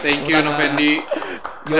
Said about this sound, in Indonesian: teman-teman bisa kedengeran nggak kita kita tepuk tangan ini di belakang